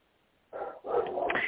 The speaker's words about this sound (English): Anyway, I have a very big barking dog out here.